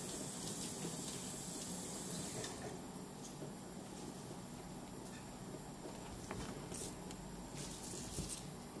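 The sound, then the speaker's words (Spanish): A steady, hissing bubble of water boiling in a pot with two eggs being hard-boiled, fairly quiet, with a dense churning texture and faint clicks throughout; no one speaks. “Y estoy hirviendo dos huevos de paseo, dos huevos duros. Empezó a hervir el agua y a partir de ese momento ponemos 10 minuticos, pues 9.”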